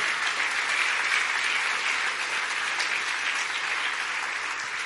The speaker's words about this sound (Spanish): ¿Cuántos pueden decir amén? Dale un fuerte aplauso de alabanza al Señor.